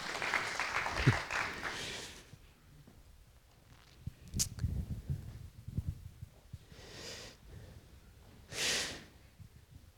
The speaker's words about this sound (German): Vielen Dank fürs Mitmachen. Können wir einen kleinen Applaus geben hier dem, dem Team.